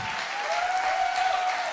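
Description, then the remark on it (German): Steady, dense applause from an ICF Hamburg church audience, a continuous crackle of many hands clapping at an even loudness throughout, with a faint high tone running underneath. “Sehr schön, von euch kann man Applaus lernen.”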